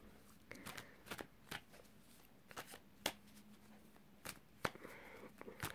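Tarot cards being shuffled: a run of quick, crisp papery flicks and riffles with irregular rhythm, fairly soft, with brief pauses between bursts and no talking.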